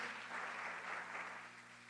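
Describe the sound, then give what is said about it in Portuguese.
An audience applauds steadily, a dense wash of many hands clapping at a constant, fairly loud level for a couple of seconds, with a low steady hum underneath. “Dá um aplauso forte por isso.”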